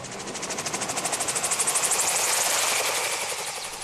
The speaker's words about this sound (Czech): tento vrtulník dostal do vzduchu 13. listopadu 1907, ale dostal ho do vzduchu jen na krátkou dobu a to do výše pouhých 80 cm.